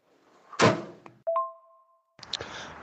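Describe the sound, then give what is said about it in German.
A large, empty desk drawer on a nearly empty rolling cabinet shuts with a heavy thunk, followed by a sharp click and a short ringing metallic tone, then a scraping rumble as it settles. Fairly loud, no talking. “Ein Rollcontainer nahezu leer mit einer riesengroßen leeren freien Schublade ist vorhanden.”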